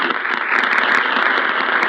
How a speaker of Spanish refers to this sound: Las palabras de Agustín Lara son rubricadas por un aplauso para Félix Andiano el hábil columnista de Excelsior, y para el señor licenciado Baltasar Dromundo, jefe del Departamento de Radio de la Secretaría de Gobernación.